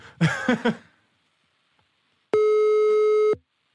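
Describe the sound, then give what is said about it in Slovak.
A brief burst of voice early on, then silence, followed by a single steady telephone line tone after dialing a call, lasting about a second, loud and clear, before it cuts off. “No skúsme zavolať úplne čisto náhodne nejakej ženskej poslucháčke, že ako to má ona, čo sa týka mm-hmm.”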